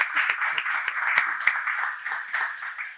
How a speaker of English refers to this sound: you want to applaud? Yes.